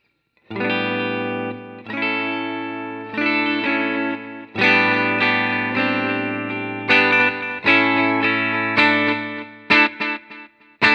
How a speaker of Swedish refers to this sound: Och det här är ändå på den digitala sidan va? Precis. Tar vi då tape delay, låter så här.